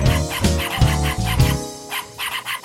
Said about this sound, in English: He goes, then he goes. He takes a breath and then he goes. Why'd they have to get a yappy wiener dog when there are so many sweet demeanor dogs?